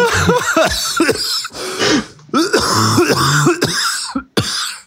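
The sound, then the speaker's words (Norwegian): Loud bursts of coughing and throat clearing come in quick rough fits over about five seconds, with brief gasps between them and no speech. “Ja, det blir litt hosting her i dag, og jeg kan love dere som hører på at det ikke er fra Trondheim det hostes i dag.”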